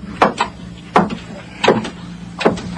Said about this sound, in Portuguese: Bate levemente na porta e entra.